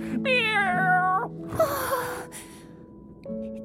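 A long, drawn-out cat meow that slides downward in pitch, followed by a breathy, gasping rustle and a brief quieter tonal sound near the end. It's fairly loud, with no talking.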